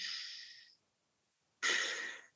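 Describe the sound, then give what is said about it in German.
A person imitates a horse's slow, deep breathing: two long, airy breaths separated by a short pause, the second starting abruptly and trailing off slowly as it breathes out. Fairly soft, with no talking. “die atmen dann so langsam und tief und atmen auch ganz langsam so aus.”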